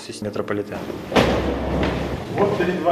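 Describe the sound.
A heavy metal bunker door, the door leading to a metro station, slams shut with a loud, booming impact and a low resonant rumble that lingers for about a second, with voices talking before and after it.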